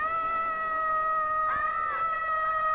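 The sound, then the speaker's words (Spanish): A single long, high-pitched voiced shriek, voicing Bastian's shriek in a story being read aloud, holds steady and loud for nearly three seconds, its pitch wavering briefly partway through before settling again; no other sounds or talking alongside it. “El chillido de Bastian se ha escuchado en el libro.”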